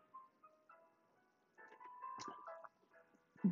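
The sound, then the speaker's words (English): A tinkling, jingle-like melody plays as background music with no talking, bright chiming notes rising and falling at a moderate volume, swelling louder in the second half. “Um, Speaking of loud and no loud music's playing in the background”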